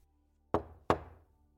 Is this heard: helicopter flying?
no